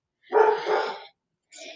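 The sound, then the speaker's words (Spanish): One of the speaker's own dogs lets out a loud, drawn-out bark, then after a short pause a second, briefer bark, with no one talking. “ay, mis perros.”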